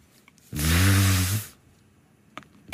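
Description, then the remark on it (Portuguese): A voice imitates an elevator door sliding open: one loud, breathy hiss with a low hum underneath, lasting about a second before fading into near silence. “peço que faças o, o som da porta a abrir”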